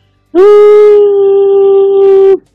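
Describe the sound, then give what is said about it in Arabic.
A voice hums a single steady, fairly high tone for about two seconds, loud with no other sound, imitating the sustained ringing in the ears after a blast that leaves one unable to hear. “مثل ما بحطوا لك الافلام هيك برج راسك وبترج الاذن وما عاد تسمع و... والهي الصفرة اللي هي هيك”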